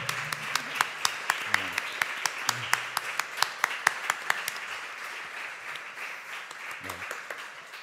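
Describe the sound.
Audience applause for the author of a book at the end of a talk fills the whole stretch: a dense, steady patter of many hands clapping at moderate loudness, with a few brief voices murmuring underneath.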